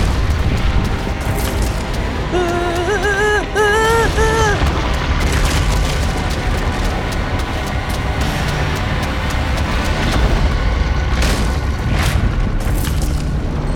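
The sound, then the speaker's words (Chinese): A heavy, continuous earthquake-like rumble roars throughout, deep and loud, as the ground under Momotaro and his companions shakes side to side, then up and down, and splits in two, with crackling, splintering bursts of ground cracking scattered through it and a brief wavering tone rising above it early on. “就在这个时候，桃太郎他们所站在的土地上，突然轰隆轰隆轰隆的作响，好像地震一般摇动了起来。一开始是左右摇摆，后来是呃上下的晃动，最后土地竟然裂成了两半。”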